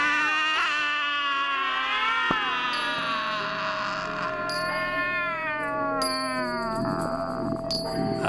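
A grey cat meows in a long, drawn-out, wavering yowl that rises and falls in pitch for several seconds, loud, with no one speaking.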